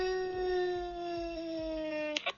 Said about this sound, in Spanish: Pídeme un ladrido espeluznante. O di sorpréndeme. Ladrido espeluznante.